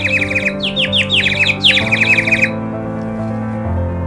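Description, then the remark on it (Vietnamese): Rapid, urgent bird alarm chirps burst out in a dense flurry of repeated downward-sweeping calls for about two seconds, loud over a steady low hum, then fall away. “May sao các bạn chim bay lượn gần đó đã nhìn thấy cảnh tượng này bèn xa nhanh xuống lá toán lên báo động cho chim nhỏ”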